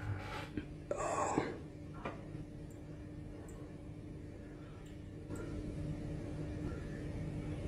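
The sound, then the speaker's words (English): A shaken man breathes heavily and unsteadily, with one loud, harsh breath near the start, then fainter breaths over a steady low background hum. “Yeah, you can hear him breathing.”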